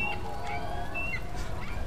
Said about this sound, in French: Le bassin verse l'atmosphère de son glouglou régulier, et les cris d'oiseaux ont vite fait de recouvrir la rumeur des voitures.